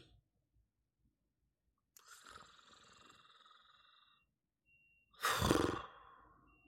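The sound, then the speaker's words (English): A person imitates a character snoring in human form: a long, droning, nasal inhale followed by a short pause and then a loud, rough snort, with no other talking. “You notice that Illyria has, uh, even in their human form, taken up snoring.”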